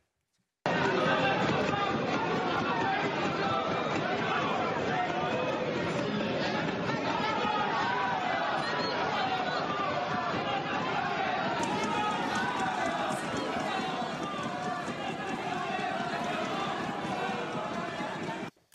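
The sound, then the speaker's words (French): A loud, unbroken uproar of many voices shouting and talking over one another in a parliament chamber, heckling and jeering without a pause, filmed by a member of parliament from her seat. “Elle filme les euh, scènes de chahut depuis son siège.”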